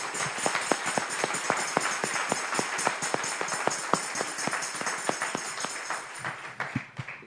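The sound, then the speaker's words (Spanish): A crowd applauds steadily for several seconds to welcome first-time visitors, a dense wash of many hands clapping with a few sharper individual claps popping out, then thinning and fading toward the end. No one speaks. “Un aplauso para ellos.”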